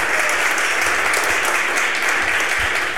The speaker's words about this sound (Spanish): Lo estamos haciendo en directo desde Estación Podcast en el Círculo de Bellas Artes de Madrid. Así que además de saludaros a vosotros, voy a pedir un aplauso para todos vosotros por venir a vernos y para Estación Podcast.